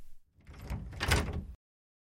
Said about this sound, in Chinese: 他们轻轻推开门，上了走廊。